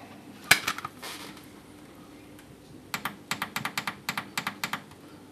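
Typing on a computer keyboard, fairly crisp: a short flurry of key clicks, a brief pause, then a steady, rhythmic run of individual keystrokes with no one talking.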